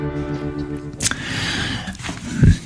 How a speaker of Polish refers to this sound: No taki głęboki oddech Wojciecha Cejrowskiego prosto z Arizony.